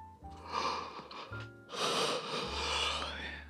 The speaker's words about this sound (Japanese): すいません。あくびが止まらないのです、また。